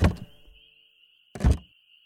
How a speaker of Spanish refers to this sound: Con cautela, abrió la puerta